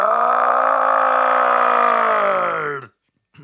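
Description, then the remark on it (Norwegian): A person imitates the bellow a moose made when hit by a car, with one long, loud, low groaning roar lasting nearly three seconds, steady and rich in harmonics, sinking slightly at the end before cutting off abruptly. “Ja, sånn låt elgen når, når, når, når du kjørte på den.”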